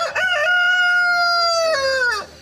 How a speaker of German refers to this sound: Das war jetzt ein, ein französischer Hahn, war das jetzt. Der klang jetzt eher nach Wuppertal.